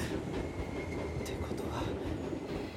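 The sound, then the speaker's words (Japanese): A train rumbles steadily along the tracks beside a hotel near the north exit, loud, with dense low-end roar and faint metallic squeals and clicks rising briefly above the continuous rolling noise. “電車の音しかもあんなに大きく聞こえたってことは絶対北口のホテル線路沿いの、えどこだよ思い出せあの時の音はそうだ大きすぎるんだ部屋の中から漏れ聞こえる音にしたらクリアすぎる”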